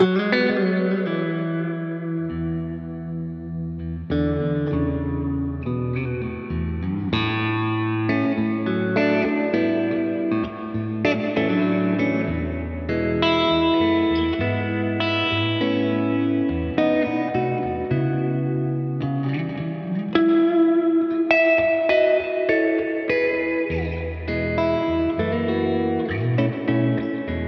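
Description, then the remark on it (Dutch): An electric guitar played through an overdrive pedal, with crisp, lightly distorted chords and sustained single notes ringing into each other in a steady, continuous passage with no voices. “hij is iets, iets eh, crispier, zeg maar.”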